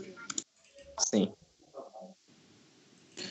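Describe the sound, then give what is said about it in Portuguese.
A couple of short, sharp computer mouse clicks as someone fills in a game character sheet, mixed in with a person talking and quiet background noise between them. “Mano, eu cliquei aqui apareceu muita coisa.”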